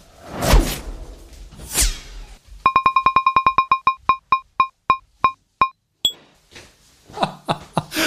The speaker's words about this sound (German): Jetzt hat es geklingelt und jetzt gehe ich mal eben zum Postboten.